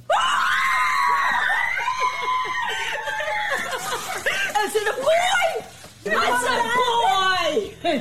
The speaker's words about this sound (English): Wow, what a happy family. It's uh, screams of joy, which makes it enjoyable. Otherwise, it'd be annoying. But uh, yeah, really fun moment there for that family.